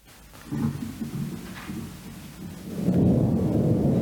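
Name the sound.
thunderstorm sound effect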